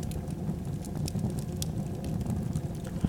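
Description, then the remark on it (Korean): A steady, warm crackling campfire, with dense low rumble and scattered sharp pops and snaps throughout, continuous with no voices. “앞으로 전 여러분과 함께 따뜻한 모닥불 소리를 들으며 복잡하고 힘들었던 일상을 정리하고 스스로의 내면을 깊이 들여다본 시간을 가질 것입니다.”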